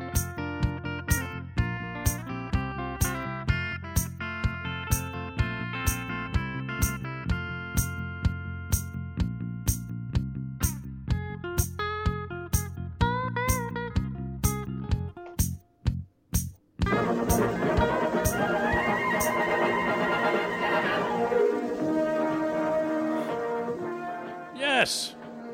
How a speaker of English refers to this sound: That's the generic CBS movie of the week from the 70s theme.